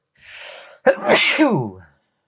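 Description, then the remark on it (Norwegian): A single loud sneeze: a breathy inhale, then a sharp explosive burst that trails off into a voiced, falling exhale. No talking. “Og jeg må nyse.”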